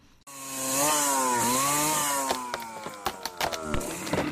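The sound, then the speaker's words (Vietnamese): A chainsaw cutting down forest trees starts with a loud, steady buzzing whine whose pitch dips and rises, then gives way to crackling and snapping bursts, as wood splinters and a tree gives way. “Những cánh rừng bị bốn hạ những dòng sông, ao hồ bị bất tử.”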